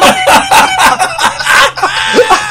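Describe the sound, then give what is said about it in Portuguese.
A cockatiel chirps and squawks loudly in the background, a rapid run of harsh, repeated calls that fills the whole moment without pause. No one speaks. “com a calopsita no fundo piando.”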